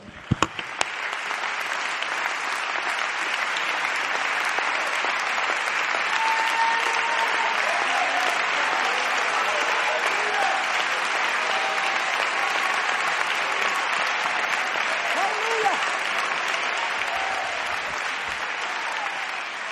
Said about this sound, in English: Just give me a moment, but when you sit down, I want you to just clap your hands unto the Lord.